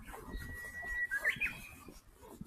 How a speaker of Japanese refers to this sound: うぐいすが泣いております。